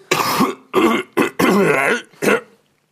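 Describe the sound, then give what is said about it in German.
Someone clears their throat several times in a row, a series of five rough, rasping bursts with brief pauses between them, loud and with no talking. “Froschenhals.”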